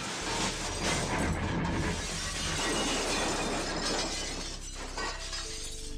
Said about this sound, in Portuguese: Infelizmente, na fuga eles bateram o carro.